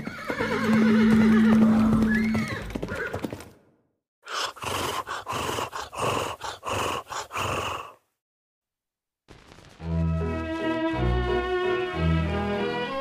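A horse whinnies loudly, then hooves clip-clop in a steady run of sharp knocks, followed by another long, high, wavering neigh. No one speaks.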